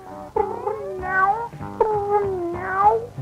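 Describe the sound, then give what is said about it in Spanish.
Two long, drawn-out meows from a female cat, fairly loud, each sliding and wavering in pitch almost like a yowl, with a brief pause between them and no talking. “Mira nada más. Qué gatita más hermosa.”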